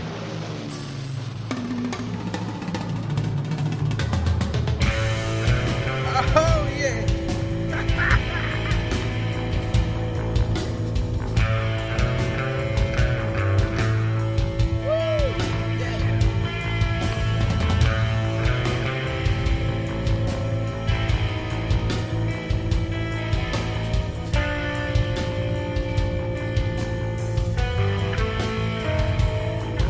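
A mid-90s alternative rock song plays continuously for the whole stretch, steady and fairly loud, with a heavy low bass line, driving drums and layered guitar tones.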